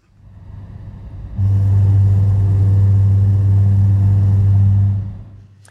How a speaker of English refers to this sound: you just take your eyes off the road for a second, you adjust the air conditioning, the radio, whatever, and all of a sudden you hear that sound and you feel that vibration called a rumble strip. And it sounds a little bit like this.